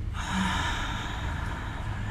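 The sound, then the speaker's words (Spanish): A slow, steady exhale of breath, audible, a long airy rush that continues evenly for about two seconds with no talking, released little by little after inhaling and holding the breath in a breathing exercise. “Respirar es poder inhalar retener y después votar poco a poco,”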